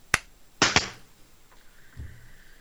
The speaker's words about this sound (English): Maximum clap. All right, are we giving him the clap? Yes. Okay. One, two, three.